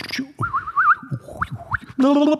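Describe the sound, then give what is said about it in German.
Someone whistles a quick imitation of starling song: a warbling trill, a few rising chirps, then a harsh buzzy note at the end. It is fairly loud, with no talking. “Mal, sing, mal, wie der, sing mal, wie ein Star singt.”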